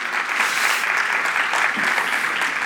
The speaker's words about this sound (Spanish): Yo creo que se un aplauso a usted mismo por la paciencia, por la espera, por estar aquí.